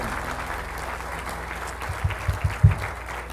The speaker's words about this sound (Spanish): Bendito sea Jesucristo. Dele un aplauso a Rey de Reyes y Señor de Señores Jesucristo.